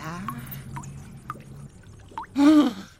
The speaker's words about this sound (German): Aus dieser Flasche fülle ich nun ein paar Tropfen Quecksilber in diese Fiole her.